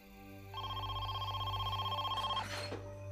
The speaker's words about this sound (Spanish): Estaba a punto de llamar a la policía cuando sonó su teléfono.